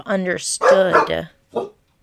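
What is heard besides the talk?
dogs barking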